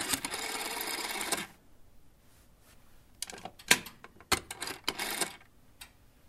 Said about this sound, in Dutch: Nou, en dan pak je zo'n oude telefoon erbij met een draaischijf. Want wij hebben deze telefoons ook nog eens een keer op elkaar aangesloten.